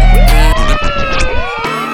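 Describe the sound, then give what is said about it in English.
A loud electronic siren wails with sweeping, overlapping rising and falling tones, layered over a thumping musical backing with heavy low bass. “Ah, vous fait notre version, les alarmes.”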